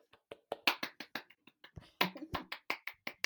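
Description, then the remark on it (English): A quick run of hand claps applauding someone for speaking the Chewa language, about twenty sharp, bright slaps in a fast, slightly uneven rhythm, fairly loud with no talking over them. “Clap for me.”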